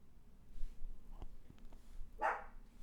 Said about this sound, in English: Oh, and Kiwi's barking already. Hey, man. Kiwi, no.